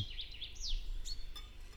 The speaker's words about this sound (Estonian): vot, ma loodan, et helikvaliteet oli normaalne ja natuke ka linnulaulu jäi sulle peale siia, kui ma vahepeal rääkisin ja vaikusmoment tekkis.